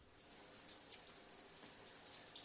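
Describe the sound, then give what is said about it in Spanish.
A shower runs steadily, a continuous bright hiss of falling water with faint irregular splashes, holding an even level throughout with no voices. “Hank se mete en la ducha.”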